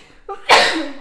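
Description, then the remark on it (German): A single sharp sneeze caused by an allergy: a brief drawn-in breath, then a loud, bright burst of air that trails off over about half a second. Alone, with no talking. “Gesundheit, ….”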